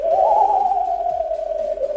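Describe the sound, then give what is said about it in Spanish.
A sustained, wavering tone glides slowly downward like a ghostly "oooo" moan, a spooky Halloween-style doorbell chime holding steady and fairly loud for about two seconds with no talking. “las compañías que hacen los timbres han desarrollado tonos para los timbres con motivo de Halloween.”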